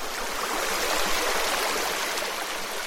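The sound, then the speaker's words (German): The Moselle river babbles gently and steadily, a continuous splashing murmur with no pauses and no voices, heard from the German bank at Wincheringen, across from Luxembourg. “Da plätschert sie ruhig vor sich hin, die Mosel.”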